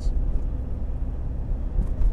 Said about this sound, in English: yeah, I mean, I, am going to yawn. I'm going to cough. There's going to be car noises.